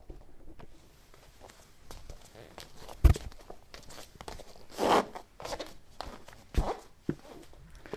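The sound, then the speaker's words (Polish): Close footsteps crunch and scuff right beside the microphone, a string of irregular steps with a few louder, sharper ones standing out over quiet background hiss. “No, słychać jak, jak chodzę, zaraz, zaraz podciągnę mikrofon pod stopy, to usłyszycie.”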